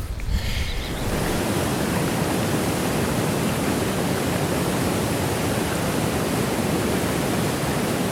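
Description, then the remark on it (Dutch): Water gushes steadily and forcefully from an outlet pipe into a basin in an infiltration area, a dense, continuous roaring splash that starts after a brief moment and holds at an even, loud level throughout. “Maar de buis waar dat water uitkomt, het infiltratiegebied instroomt en dan daar. Dat noemen wij de kwal.”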